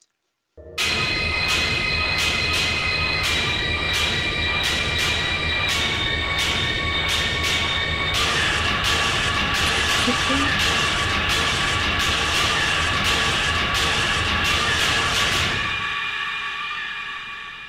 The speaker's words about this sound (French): Certaines chansons contenaient tellement de sons industriels non traditionnels que son équipe pensait que le code était défectueux.